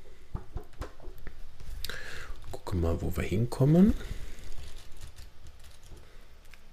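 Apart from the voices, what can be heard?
flipping through book pages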